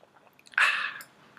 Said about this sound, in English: Hold on, let me sip my drink.